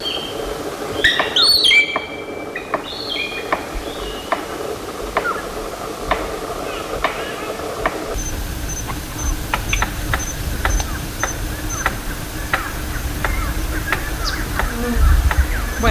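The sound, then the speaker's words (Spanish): An Australian palm cockatoo drumming a stick against its nest: a steady series of sharp, fairly quiet knocks at a regular beat, with a few shrill bird calls at the start over a constant background hiss. “Los percusionistas son unas cacatúas australianas, ah.”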